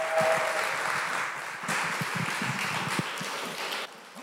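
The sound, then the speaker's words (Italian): A church audience applauds steadily to welcome a speaker to the pulpit, a dense wash of many hands clapping at a fairly even loudness for about four seconds, then thinning out at the very end. No one speaks. “E quindi sono molto felice di lasciare il pulpito a Chiara che accogliamo con un applauso e riceviamo da parte di Dio.”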